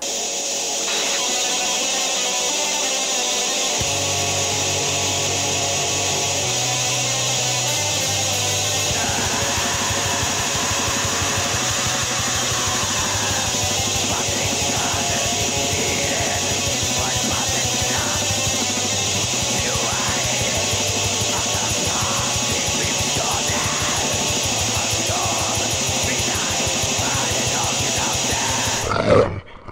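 A black metal track plays at full, unrelenting loudness: a wall of harsh distorted guitar and hissing cymbals, with bass notes shifting underneath, running nearly thirty seconds before cutting off abruptly.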